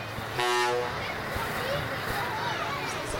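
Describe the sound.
A truck in a parade gives one loud, short toot of its horn of about half a second, followed by busy outdoor street noise with a murmur of voices in the background.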